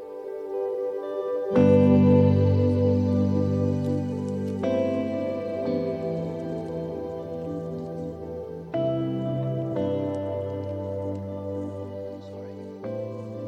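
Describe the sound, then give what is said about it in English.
A slow worship song plays, with warm sustained keyboard chords that shift every few seconds at a steady, moderate volume; no voices are heard. “Let's listen to this song and reflect on it”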